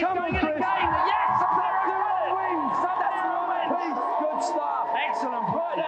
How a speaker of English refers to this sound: So when he is winning, you can hear the crowd boo. When he wins that second fight, the crowd legit boo him because they don't want him to win.